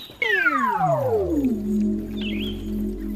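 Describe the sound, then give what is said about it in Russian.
One long, loud meow starts high and slides steadily downward, then settles into a drawn-out lower wail that fades slowly. A faint, brief high chirp sounds in the background near the end. “Мяу! Не как то под рогожку забился.”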